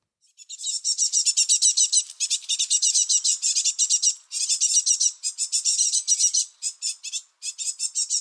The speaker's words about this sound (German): Und wenn man sie dann irgendwie im Kasten verschwinden sieht, dann hört man es auch oft piepsen. Dann weiß man, okay, die Jungvögel sind geschlüpft und schon da.